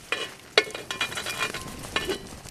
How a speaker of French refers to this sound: Cet homme imposant a préparé un feu de bois où fume une vieille cafetière en fonte. C'est la tradition.